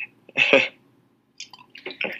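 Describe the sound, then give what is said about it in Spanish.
Liquor splashes into a glass in two short pours, a gurgling burst, a brief pause, then a few more quick glugs. “lo sirvo así directo, güey, de la cámara que lo vean.”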